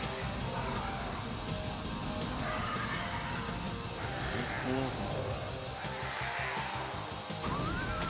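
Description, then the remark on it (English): Someone growls and screeches in a harsh, rising voice, imitating a pterodactyl. The cries repeat over a dense, noisy background that stays fairly loud throughout. “you can still hear the person growling.”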